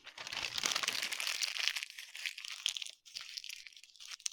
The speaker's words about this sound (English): Grab a piece of scrap paper and crumple it up into a tight ball.